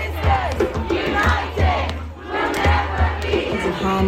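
A large street protest crowd of thousands in Britain shouting about women's safety, loud overlapping voices rising in waves of chanting and yelling, with a steady low rumble underneath throughout.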